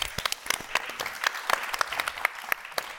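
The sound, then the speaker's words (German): A theatre audience applauds steadily at the start of a stage performance, a dense patter of many hands clapping at moderate volume with no voices over it, holding even for the full few seconds. “Also vielen Dank, Applaus an euch, dass ihr da seid.”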